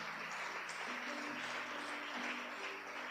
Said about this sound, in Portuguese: Pode aplaudir o Rei da Glória.